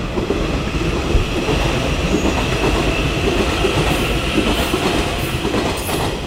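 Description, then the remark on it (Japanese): An inbound Nishitetsu Tenjin-Ōmuta Line local train bound for Tenjin, in Fukuoka near Fukuoka Airport, rolls steadily along the rails, a loud continuous rumble with faint rhythmic clatter of wheels, with no talking. “西鉄お、えー、天神大牟田線の上りの、えー、天神行き普通列車の音です”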